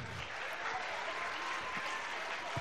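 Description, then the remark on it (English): Steady audience applause during the introduction of speakers, a dense continuous patter of many hands clapping at an even loudness throughout, with no voices standing out. “We got to keep the applause to the minimum because we only have less than an hour and we want to give them lots of time.”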